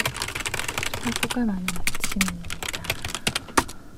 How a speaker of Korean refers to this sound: 조그만 방을 가득 채우는 타자 소리.